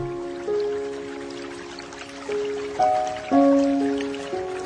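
Water drips slowly and irregularly, about half a dozen resonant, ringing drops, each with a slightly different pitch, over a soft steady background with no voices.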